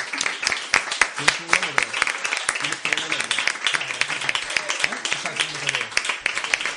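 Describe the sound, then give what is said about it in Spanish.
A crowd applauds steadily for several seconds, a dense patter of many hands clapping, with voices calling out and talking underneath. “Un aplauso. un aplauso enorme.”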